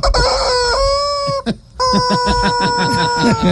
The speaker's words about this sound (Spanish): Es un solo de gallo. un solo de gallo. óigalo, Repítame ese solo de gallo.